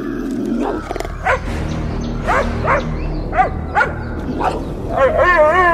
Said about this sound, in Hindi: पॉमी सचमुच भौंकने लगा था उसका भौंकना तो बंद होने का नाम ही नहीं ले रहा था